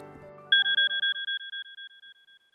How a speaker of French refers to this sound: J'avoue, c'est bien une des seules fois où j'ai mis mon réveil ces dernières semaines.